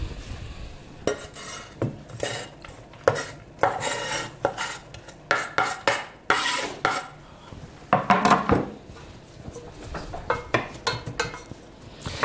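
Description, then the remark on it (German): Onions being stirred in a frying pan with clarified butter (Butterschmalz): irregular scraping and clattering of a utensil against the pan over a faint, steady sizzle, with no talking. “jetzt gebe ich die, die Zwiebeln hinzu.”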